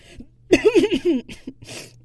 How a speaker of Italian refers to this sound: Tossicchio appoggiando il bicchiere.